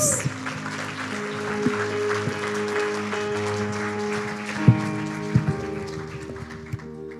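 A church audience applauds steadily for Christ Jesus for several seconds, a dense wash of clapping layered over sustained keyboard chords, with a few sharper claps standing out near the end as it begins to thin.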